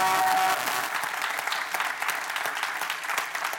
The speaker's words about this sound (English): And so we're definitely thankful and definitely appreciate, appreciate, appreciate, appreciate them. So let's give all them a round of applause.